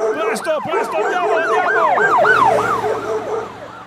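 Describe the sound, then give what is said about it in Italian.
A fire engine siren blares in a fast, repeating yelp as firefighters are called to a neighbourhood, each rising-and-falling wail following quickly on the last, loud and steady throughout. “Chiamarono addirittura i pompieri.”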